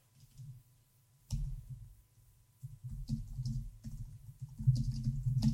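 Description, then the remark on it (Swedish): Typing on a large computer keyboard to reply to text messages: soft clicky keystrokes in irregular bursts with short pauses, becoming a steadier, busier flurry toward the end. No one speaks. “Det är skönt att kunna svara på sms med ett stort tangentbord.”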